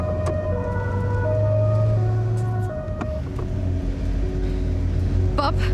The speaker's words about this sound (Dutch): Waarom gaat de sirene uit?